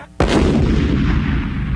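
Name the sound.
bomb explosion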